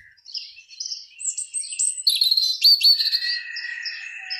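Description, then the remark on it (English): Several birds chirp and sing together in a lively, overlapping chorus of high, bright trills and whistled notes, steady throughout with no talking. “All around the globe, there is no place except for maybe the deepest part of the deserts of this great globe where we can hear the birds.”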